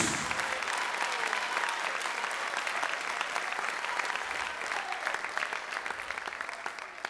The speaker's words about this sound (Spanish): Dele fuerte esas palmas a Él. A Cristo Jesús.